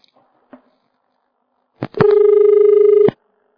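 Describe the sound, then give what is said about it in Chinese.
A telephone line drops to a dial tone: a couple of soft clicks, then a steady, loud, buzzy electronic tone that holds for about a second before cutting off abruptly. No one speaks. “嗯，电话没跳进来。”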